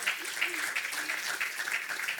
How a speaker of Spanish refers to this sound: Den un aplauso al Señor en esta tarde.